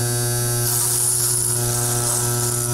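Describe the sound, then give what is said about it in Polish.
An electric razor held close to the right ear buzzes steadily and loudly, a low droning hum with a rasping, hissy edge that swells slightly after the first moment and continues unbroken. No one speaks. “Now, you can get the same effect better with the electric razor.”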